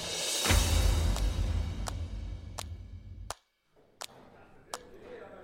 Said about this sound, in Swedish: Nu sitter vi i en hotellkorridor på golvet. Där de har någon ombyggnation borta. Ja, ja. och det är inte alls bra för vårt ljud.